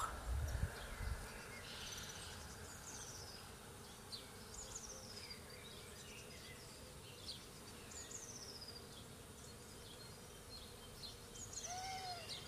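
Birds sing in a garden with scattered high chirps and short descending whistles, fairly soft, over a steady low hum of buzzing bees. No one speaks.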